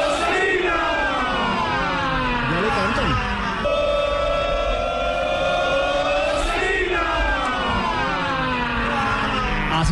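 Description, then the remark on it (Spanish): A stadium crowd of football fans roars a loud, sustained shout in unison in the stands at the appearance of James Rodríguez and David Ospina, many voices blending into drawn-out tones that swell and shift in pitch, with a brief break partway through before the shout rises again. “un simple grito, porque no es ni un cántico, que ya se escucha en las tribunas de la Stadium, con la aparición de James de David Ospina.”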